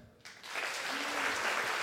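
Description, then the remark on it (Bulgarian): An audience bursts into applause, dense clapping that starts abruptly and quickly builds to a steady, loud wash of many hands, with a faint voice briefly audible underneath. “Ево, хора, най-много ме изкефи, че всички, които пласкат, че му се кефят, също пласкат, че не му се кефят.”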